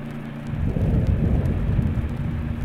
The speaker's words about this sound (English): Oh, thunder. There it is.